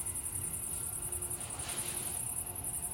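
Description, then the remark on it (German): Crickets chirp continuously in a high, rapid pulsing trill, steady throughout, over a low rumble of traffic on a bypass road. No one speaks. “Ich höre nur noch die Umgehungsstraße und die Grillen zirpen.”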